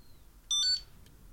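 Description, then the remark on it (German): A short electronic alert tone from a phone, a bright stacked chime lasting about a third of a second, clear, with no talking: a distress signal that arrives on the phone within two seconds after a panic button is pressed, reading "I am in distress". “innerhalb von zwei Sekunden ein Signal. Auf diesem Signal steht, ich bin in Not.”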